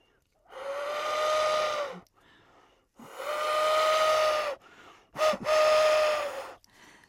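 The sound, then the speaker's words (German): Three long, breathy hoots blown on a wooden owl-call whistle, each a steady mid-pitched tone with airy hiss, separated by short pauses, the last one preceded by a quick puff. “Das war jetzt so eine Holzeule, mit der ich geschuhhut habe.”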